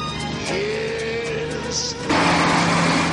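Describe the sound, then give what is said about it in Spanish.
A heavy truck carrying logs rumbles past in front of a house, its engine droning steadily with broad road noise, then growing suddenly louder and rougher for the final second as it passes. “Por delante de la casa pasa un camión que transporta troncos.”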